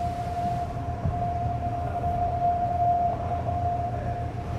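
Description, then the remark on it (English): The horn of an early morning ferry out to the Shinan Islands holds one steady, mid-pitched tone for several seconds without a break, sounding over a constant low rumble like the ship's engine. “This is just an early morning ferry out to the Shinan Islands.”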